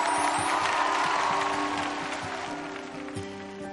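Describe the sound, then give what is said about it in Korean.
An audience claps together for teachers in a dense, steady burst of applause lasting a few seconds, holding strong before gradually thinning out toward the end, with a low hum underneath. “선생님들한테는 박수 한번 보내주시기 바랍니다.”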